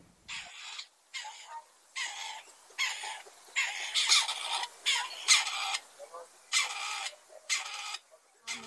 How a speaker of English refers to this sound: It has something in common with the robin, which we featured in our last tweet, in that both partridges and robins have orange faces. So, tweet of the season partridge.